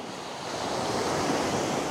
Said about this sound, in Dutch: Ja, dat was hem weer. Eén in de drie, vier golven geloof ik, hier. De ene golf is wat zwaarder dan de andere. Die oceaan trekt zich niks aan van wie of wat dan ook.